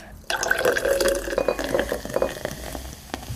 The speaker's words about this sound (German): Und jetzt gieße ich mit Sprudel auf.